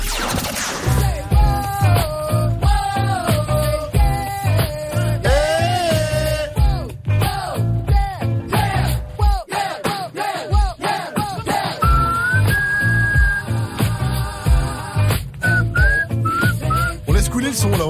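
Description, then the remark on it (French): An upbeat, popular club dance track with a steady thumping beat, its catchy melody carried by bright whistling that loops and glides over the rhythm, loud and continuous with no voices. “Ah, un petit ça c'est le son sur lequel tout le monde a dansé en club.”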